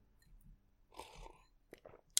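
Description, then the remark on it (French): A quiet sip from a drink: a soft airy slurp, followed by a few small wet mouth clicks and a swallow, with no talking. “Je prends une petite gorgée.”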